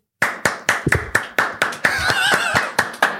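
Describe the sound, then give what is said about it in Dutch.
Steady hand clapping at a brisk, even pace, fairly loud, from a small group, with a brief rise of cheering or whooping voices in the middle. “Eh, ik had nu wel applaus verwacht.”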